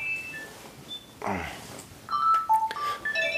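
A telephone rings with short electronic tones at shifting pitches, then a brief sliding chirp mid-clip, followed by a cluster of beeps as the call is declined. Fairly quiet, no talking.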